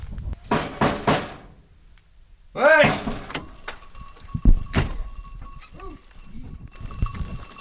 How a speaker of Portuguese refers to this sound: Toma conta de um rebanho de cabras.